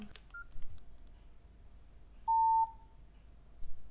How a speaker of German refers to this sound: Kurzer Piepton. Das klingt fast wie ein Fehler, aber ist wohl normal. Nein, das ist der Startton.